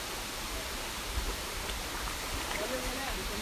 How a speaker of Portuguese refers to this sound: Vai lá no poço. Vamos lá, rapaz. deu uma cascata d'água.